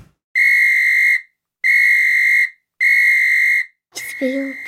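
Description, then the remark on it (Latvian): A traffic police whistle sounds three long, steady, shrill blasts with even pauses between them, loud and sharp, followed by a brief, rougher burst of sound at the very end. “Silba. Jā, jā, jā. Svilba.”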